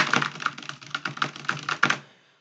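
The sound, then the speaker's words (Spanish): Rapid typing on a computer keyboard, a steady stream of clicky keystrokes with a few louder taps, fairly quiet, stopping after about two seconds with no voices present. “Y si eres una persona que no tiene nada de paciencia, eres una persona intolerante y que nada más estás viendo cómo está tecleando en la oficina el de al lado y que se escucha”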